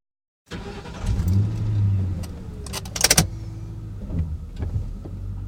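A car door opens and closes, followed by a low engine rumble steadily running with some clicks and jangling, like someone settling in and pulling away up close.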